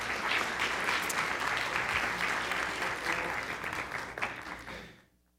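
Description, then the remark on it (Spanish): A crowd applauds the young people steadily, a dense wash of many hands clapping at a fairly loud, even level for about four seconds before fading out quickly. “Denles un aplauso aquí a los jóvenes.”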